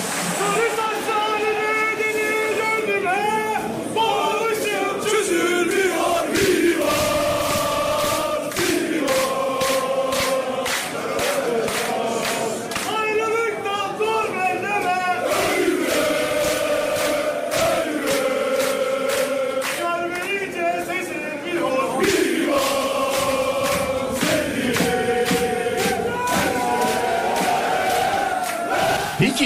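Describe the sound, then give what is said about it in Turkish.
A big crowd of football fans in Nevizade chants loudly in unison before a Kadıköy derby match, with rhythmic claps or drum hits punctuating the song throughout. The sound is dense, energetic and sustained. “Nevizade onlar. Orası yanıyor olabilir abi şu an.”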